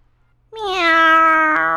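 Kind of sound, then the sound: animal, cat meowing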